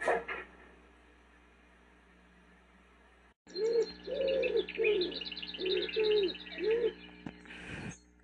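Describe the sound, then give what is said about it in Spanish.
Birds chirp and tweet while a dove coos in a steady series of low, rounded calls, the sounds overlapping outdoors with no talking. “Eh, es impresionante como había escuchado, o sea, había escuchado los pájaros, pero los había olvidado por completo en mi día a día en la ciudad.”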